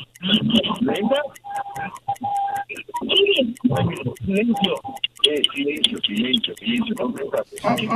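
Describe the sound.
A steady, quick clock ticking runs through the whole stretch as a countdown timer for answering a quiz question, its crisp regular ticks continuing under people talking over it.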